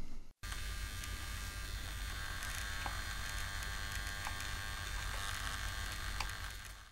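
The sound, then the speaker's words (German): A humanoid robot's motors hum steadily while it stands idle, a fine buzzing whine holding unbroken after a brief dropout at the start, with occasional faint clicks over the drone and no voices. “Dabei macht er so ein leises Geräusch, weil seine Motoren immer so ein kleines bisschen arbeiten.”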